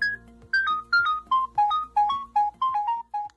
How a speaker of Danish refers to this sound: Sådan her lød det i gamle dage, når en mobiltelefon ringede. Den kunne heller ikke så meget andet, altså end at ringe.